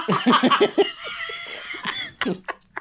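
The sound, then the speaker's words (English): A person laughs in quick bursts, then breaks into a few harsh, raspy coughs, with a strained wheezy sound in between. “speaking of coughing up”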